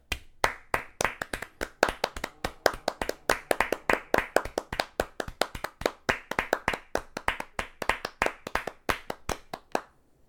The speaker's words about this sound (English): Do we applaud them? Sure. You ready? Yeah, let's do it.